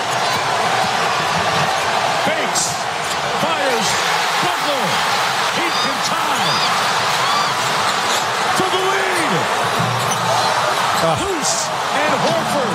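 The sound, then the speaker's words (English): Jimmy Butler's shot in a game against the Celtics clanks off the rim in a packed arena, as broadcast on ABC, the metallic hit nearly buried under a loud, constant crowd roar, with murmured voices running throughout. “That sound as it clanks off the rim.”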